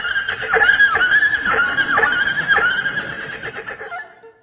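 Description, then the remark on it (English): A bowed erhu, the Chinese two-string fiddle, mimics a horse's whinny: a high, strained, wavering tone with several quick downward swoops in a row, loud throughout, then tapering off at the end. No voices. “It can duplicate the sounds of animals, such as birds or even horses.”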